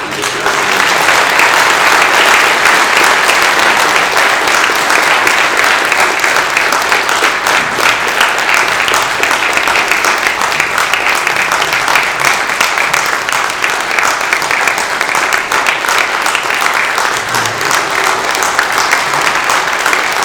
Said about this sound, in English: And uh, let's uh, give a round of applause and welcome to the podium, the pulpit.